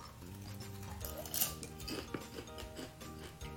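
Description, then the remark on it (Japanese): Crisp crunching as someone chews popcorn of an unusual, slightly sour kind, a steady run of light, crackly bites with a soft hum underneath and no talking. “食べちゃいます早速ねいただきますね咀嚼音入りますよ”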